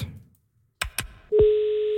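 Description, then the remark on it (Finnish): A telephone being dialed: two sharp clicks, then a steady, loud electronic phone tone that holds to the end, with no voices. “No soitetaan, mulla on numero tässä valmiina ja kokeillaan, jos tarvit jeesiä, niin toivottavasti sieltä myös saat.”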